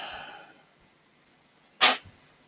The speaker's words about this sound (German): Gesundheit